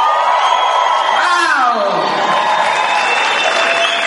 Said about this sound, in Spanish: Allá para los que me aplaudieron, me, da la impresión de que al menos conocen o son de allá.